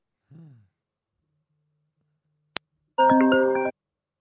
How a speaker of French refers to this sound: Pardon, c'était le téléphone.